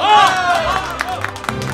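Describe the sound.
A group bursts into applause, with a steady run of sharp claps standing out over a broad crowd murmur and a brief raised voice at the start.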